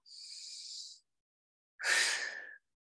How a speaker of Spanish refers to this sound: Vamos a respirar una respiración, la última, súper, súper profunda.